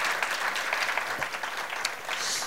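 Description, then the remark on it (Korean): Sustained applause from an audience, a dense steady patter of many hands clapping together for a couple of seconds, with no one speaking over it. “야, 박수 한번 좀 부탁드리겠습니다.”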